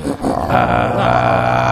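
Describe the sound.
A rough, raspy vocal-fry growl produced by a human voice, sustained and loud for nearly two seconds after a brief catch at the start, heard alone with no talking.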